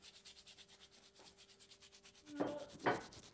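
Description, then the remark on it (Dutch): A wooden spoon being rubbed in a steady, rapid back-and-forth scraping rhythm, fairly quiet, with two louder, harsher strokes near the end; no voices. “het is een houten lepel.”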